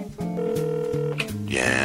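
Steady electronic telephone tones hum along, shifting pitch in a few stepped segments, close and moderately loud, before a voice cuts in near the end.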